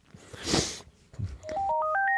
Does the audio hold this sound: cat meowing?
no